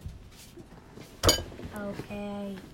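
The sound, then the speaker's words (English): A kitchen cabinet door shuts with one loud, sharp bang against a quiet background, and a voice starts talking shortly afterward. “I didn't mean to slam your cabinet.”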